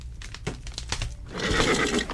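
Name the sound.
horse neighing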